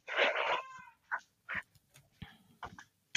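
A cat yowls loudly and insistently for food, one long drawn-out cry followed by several shorter, clipped meows, with no talking.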